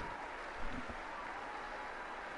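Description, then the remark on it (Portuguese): Applause from a crowd of faithful and pilgrims in the Paul VI audience hall as Pope Francis enters and walks through. A dense, continuous wash of clapping at an even level with no distinct voices, holding steady for the whole moment. “E nesse momento, Papa Francisco entra na grande sala Paulo VI, caminhando sobre o aplauso dos fiéis e peregrinos que o recebem com um grande calor.”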